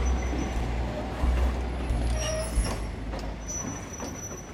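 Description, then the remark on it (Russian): A train rumbles steadily as it pulls into its terminal station and slows, with thin metallic wheel squeals ringing out above the low, heavy roll of the railcars. “Конечная. Поезд дальше не идет.”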